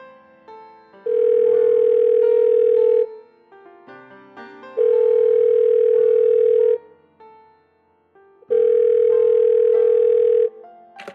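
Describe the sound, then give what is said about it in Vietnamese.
A phone line's ringback tone as a real estate news program calls a representative of Em Thailand in Nha Trang: three long, steady electronic beeps of about two seconds each, separated by short pauses, loud and clear over faint background noise. “cho em hỏi đó có phải là số điện thoại của chị Thùy Trinh không ạ?”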